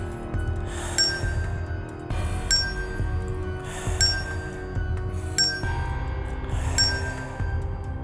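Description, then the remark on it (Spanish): A small bell rings five times at a steady pace, about every second and a half. Each bright, high strike fades slowly over a low, continuous background rumble. “Olvídate de todo, especialmente de la maldita campanilla.”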